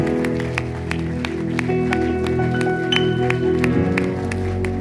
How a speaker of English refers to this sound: Keep clapping for them. They are shy like me.